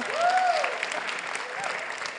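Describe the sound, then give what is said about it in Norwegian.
An audience claps steadily in applause for the worship session (lovsangstime), a dense patter of many hands filling the whole stretch, with a brief rising whoop or cheer near the start riding over the applause. “En klapp til lovsangstime.”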